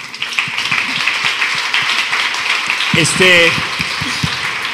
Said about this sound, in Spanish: Yo quiero terminar con esto porque honestamente, un aplauso, ¿no?